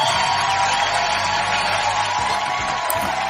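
An audience claps and cheers in a steady, loud wash of applause that holds for the whole few seconds, with a few voices calling out beneath the clapping.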